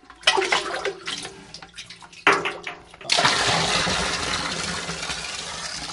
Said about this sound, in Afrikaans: as hy miskien 'n bietjie versakker vir die diere wat ons water gee, dan maak ons net 'n bietjie gaatjie en weer. Dan skep ons hy water weer uit saam met hy grond, dan het ons weer water.